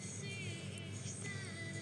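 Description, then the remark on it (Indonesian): An old Honda car rumbles past with a steady, moderately loud engine drone and a low throaty growl, its whining tones shifting slightly in pitch. No one speaks. “Honda tua, Honda tua, it's, it's, uh, uh, uh, beneran ada Honda tua.”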